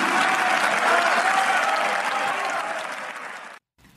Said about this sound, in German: Ja, ich kann mich oh. auch nicht daran erinnern, dass man jemals schon mal quasi Standing Ovations oder auch irgendwelche Jubelrufe aus dem Publikum gehört hat